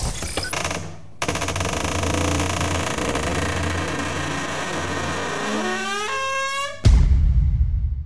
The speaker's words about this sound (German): das war die Techno-Tür. Wir hatten gerade so einen, äh, so einen schönen Remix von dem.